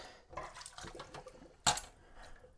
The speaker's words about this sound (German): Lassen also wir jetzt hier noch das Wasser ab.